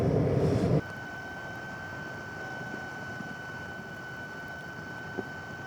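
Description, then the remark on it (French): Steady, close hiss of gas escaping from a tiny fumarole, a small crack in the rock, at the windy summit of La Soufrière in Guadeloupe, recorded with microphones 15 cm away; a thin constant whistle riding over rushing noise, preceded by a brief louder burst at the start. “Une petite faille dans une roche et il y a un petit souffle d'air qui siffle.”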